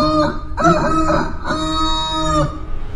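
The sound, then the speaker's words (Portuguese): A large rooster with a red comb, gripping a bench indoors, crows once, loud, a full cock-a-doodle-doo that breaks into a few quick syllables before a long, held final note trailing off. No one speaks. “Este galo está na rua? Não, tá ali dentro com vocês.”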